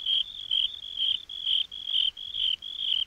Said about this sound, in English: Loud? asked the cricket. Yes, we can chirp loud. So the ten crickets chirped very loud.